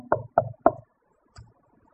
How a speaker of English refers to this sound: We got 99 other rooms where Jesus says, I stand at the door and knock.